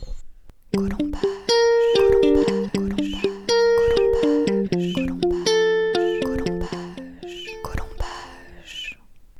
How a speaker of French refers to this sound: Mais avant ça, jingle.